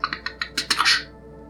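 A rapid series of crisp mechanical clicks as a door's latch mechanism is pushed down like a handle, building to a louder rattling clack before stopping. No one speaks.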